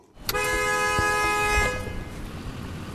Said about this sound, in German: Stau in beiden Richtungen auf der Cherokee Orchard Road bei Gatlinburg am nördlichen Rand der Great Smoky Mountains. Ein Dutzend Autos steht mit laufenden Motoren am Straßenrand.